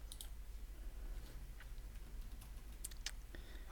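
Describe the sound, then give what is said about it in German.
Quiet, irregular tapping of keys on a computer keyboard, a scattered run of soft clicks over a low steady hum, with no one speaking. “Ach, scheiße, was habe ich denn jetzt gemacht? Falsche Tastatur.”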